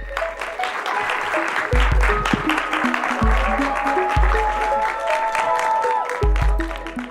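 An audience applauds steadily for several seconds for an evening show's guest, a dense, even patter of clapping, while a music track with a pulsing low bass line plays underneath.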